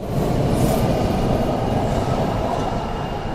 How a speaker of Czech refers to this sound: Rána jsou tady ve stanici metra Šuman trochu hektická. Tuto zastávku s oblibou využívají zaměstnanci pracující jak v Evropské komisi, tak v Radě Evropské unie.